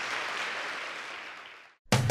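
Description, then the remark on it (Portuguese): A church audience stands and claps for Jesus in a dense, steady wash of applause that slowly fades away, then cuts to silence before a brief loud burst of a different sound starts at the end. “Vamos nos levantar e vamos dar uma grande salva de palmas para Jesus. Vamos aplaudir mais.”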